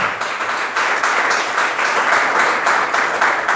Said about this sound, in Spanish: Denle el aplauso a Cristo, por favor, esta mañana.